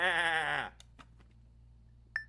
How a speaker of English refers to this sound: Check it out. Here's here's a, a sheep who doesn't like the retribution angle. Get this gimmick. This is a good one. I just wrote this. Bah.